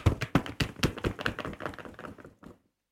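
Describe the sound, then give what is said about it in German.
Paper is flapped rapidly in a quick, uneven burst of papery slaps, mimicking a bird's wingbeats. The flutter fades after a couple of seconds, with no voices. “Das hätte jetzt ein Vogel werden sollen, aber mit dem Bier funktioniert es nicht so gut.”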